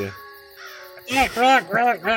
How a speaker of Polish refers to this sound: Kiedy się zbliżacie, podskakuje i wrzeszczy na was. Jak, jakby był czymś kompletnie wzburzony. Jakby na was po prostu podskakuje i krzyczy na was ten kruk, jak tylko może.